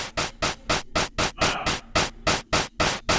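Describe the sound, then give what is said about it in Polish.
A steady, fast electronic drum pattern from a small pocket synthesizer, with about a dozen bright, noisy hits in even rhythm, the drum sounds being modulated. The hits sound processed and slightly smeared, played alone. “Masz taka, taki nawet perkusja mogę modulować.”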